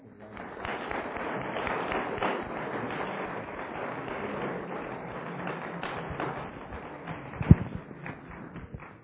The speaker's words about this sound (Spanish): Vamos a darles un aplauso a los muchachos de la Ishibá.